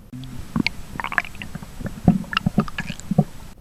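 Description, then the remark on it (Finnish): Stomach and intestine gurgling heard through the abdominal wall with an ear placed on a person's belly: irregular bubbling pops and low squelchy rumbles, moderately loud, with no voices. “Suunnilleen tällaista kuulee, kun laittaa korvansa kaverinsa vatsan päälle ja alkaa kuunnella. Vatsanpeitteiden läpi kuuluu kuplintaa”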